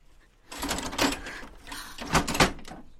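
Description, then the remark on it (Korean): A locked wooden cabinet door rattles and creaks open, with a scraping, shuffling stretch broken by a few sharper knocks near the end, as it is opened to put the belongings inside in order. “또다시 짐을 정돈하기 위하여 잠가두었던 장문을 열었나이다.”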